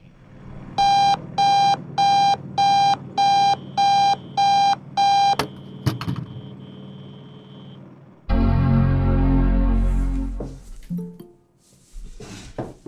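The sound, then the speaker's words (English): An alarm clock rings with eight evenly spaced, loud electronic beeps, followed by a brief clatter and then a burst of rough, rushing noise. “Sorry, I overslept the alarm.”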